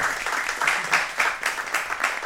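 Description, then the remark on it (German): An audience applauds to welcome author Matthias Frings, a dense wash of many hands clapping with small swells in loudness, sustained for the whole moment without anyone speaking. “Ein Applaus bitte für Matthias Frings.”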